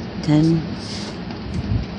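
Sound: rain falling outside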